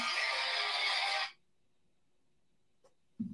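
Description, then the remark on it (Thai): A mobile phone ringtone for an incoming call on the speaker's phone, which was left switched on, blares loudly for just over a second, then cuts off abruptly, leaving near silence broken by a small click before a voice begins. “เขินเลย เสียงเรียกเข้าไปจนเซียยียว่ะ ขออภัยขออภัยครับ ขออภัยขออภัยลืมปิดโทรศัพท์ครับ”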